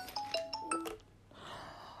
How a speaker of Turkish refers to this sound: Telefonum çalıyor.